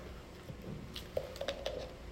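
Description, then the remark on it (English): A man takes a drink of water right up against a microphone, with a few soft, wet gulps and mouth clicks over quiet room noise and no talking. “I hate the sound of that water going down when you're on a microphone.”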